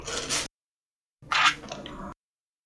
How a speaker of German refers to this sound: Während die Katze im Hintergrund gerade anfängt, hier irgendwas zu zerlegen. Katze, hör auf damit. Mach weiter, Katze. Gute Nein. Katze. Du kannst die Unterlagen später zerkratzen.